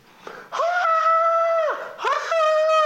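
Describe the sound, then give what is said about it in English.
A voice imitates a newborn's wailing cry on entering the world: two long, loud, sustained howls, the second rising sharply, with a brief gasping break between them. “Screaming at the top of your little lungs.”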